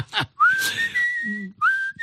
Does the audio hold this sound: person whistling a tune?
yes